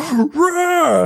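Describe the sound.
A single voice imitates the anguished scream of villagers as magic rays enter their bodies: one drawn-out, wailing cry about a second long, loud, rising then sliding down in pitch.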